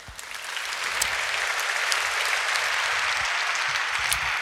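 Sustained audience applause, a dense crackle of many hands clapping that swells in the first second and then holds steady and fairly loud, with no voices over it.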